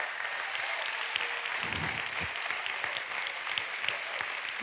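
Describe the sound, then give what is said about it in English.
A church audience claps steadily for about 30 seconds as a hand clap of praise to the Lord, a dense, continuous wash of many hands with crisp individual claps standing out, sustained at an even loudness throughout, with faint voices murmuring underneath. “Take 30 seconds to give the Lord a hand clap of praise.”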